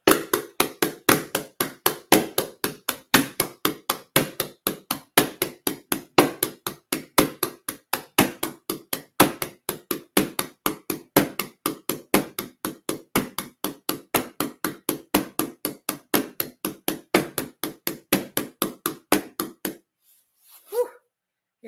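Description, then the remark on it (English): Shamanic drumming: a steady, rapid, unbroken beat of sharp drum strikes, loud and evenly spaced for about twenty seconds before stopping abruptly. No voices are heard. “so he had me listening to shamanin, shamanic sacred drumming.”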